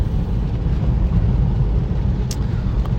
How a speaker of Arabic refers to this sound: آه، فان شاء الله ما يكون مزعجكم هذا الصوت الباب اللي بيطلع كل شوي لانه انا مزعجني كثير